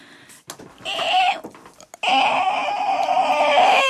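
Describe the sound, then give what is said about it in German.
A voice imitates a creaking door: a short strained creak, a brief pause, then a longer, loud, wavering creak that sounds almost like a bleating animal. “Ich versuche so ein Türgeräusch.”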